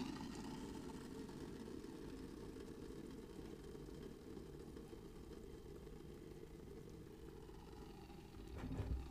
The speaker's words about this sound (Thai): จากที่ทุกคนน่าจะได้ยินเสียงตอนนี้คือน้ำร้อนกำลังแบบปุดปุดปุดปุดปุดปุดอย่างจริงจังเสียงน้ำเดือดมากเลย